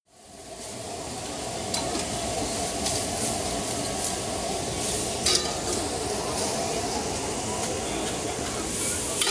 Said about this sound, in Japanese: 最初のジューっていう音は何の音ですか鶏肉を焼いてる音かな 鶏肉を焼いてる音鉄板で焼いている音ジュージュー聞こえました、うん、確かにあと美味しそうな美味しそうだった